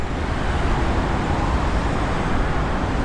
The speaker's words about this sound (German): Heute quälen sich zu Stoßzeiten 9000 Autos pro Stunde über den Asphalt.